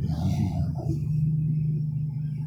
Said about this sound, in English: The air pump. They had to pay 75 cents.